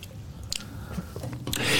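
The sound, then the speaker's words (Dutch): Someone takes a sip of a drink, with a few small wet mouth clicks and a soft slurping rush at the end. No one speaks. “Ik, ik nam al een slokje, slokje te, hm.”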